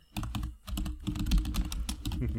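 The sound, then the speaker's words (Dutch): Rapid typing on a computer keyboard, a steady flurry of clicky keystrokes with short pauses, heard on its own without any talking. “Je gaat mijn, mij horen typen nu.”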